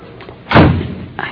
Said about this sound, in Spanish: ¿Eh? Parece que sonó la puerta.